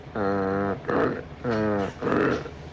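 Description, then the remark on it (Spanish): A person imitates a donkey's bray: two loud hee-haw cycles, each a voiced, tonal 'hee' followed by a rough, breathy 'haw', given in a steady rhythm. “Al principio venía como el Titanic. Este es el burro.”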